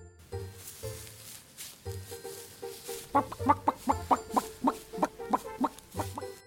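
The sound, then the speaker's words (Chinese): A pet rooster named Maoqiu (Furball) clucks in a quick, steady run of about a dozen short, bright clucks, preceded by a few seconds of softer, lower murmuring sounds. No one speaks. “它起了一个名字叫毛球，毛球是一只公鸡。”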